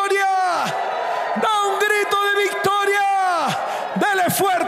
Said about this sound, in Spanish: Entonces da un grito de victoria